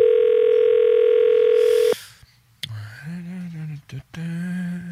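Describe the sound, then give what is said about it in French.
A steady, loud telephone ringing tone on a long-distance call placed late at night holds for about two seconds, one continuous buzzy pitch, then cuts off; after a brief pause, a voice starts talking. “T'appelles du monde à 11h30 le soir.”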